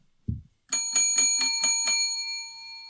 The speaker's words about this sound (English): It, it gets to the bottom and I fill it back to the top. Got to keep a tally going. Hit the bell every time.